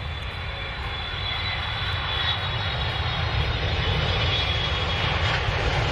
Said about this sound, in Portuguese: Então vamos lá, o avião tá saindo.